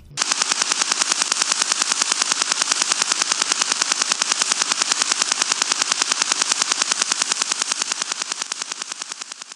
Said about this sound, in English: in his in depth look into the return of Russia's famous over the horizon radar transmissions. It did not take long for me to connect what I was hearing to the past and realize I was hearing a form of the old Russian woodpecker again, he said.